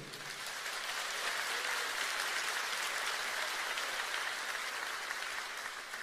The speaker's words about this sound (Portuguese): Mas a pergunta é: pode aplaudir o Senhor?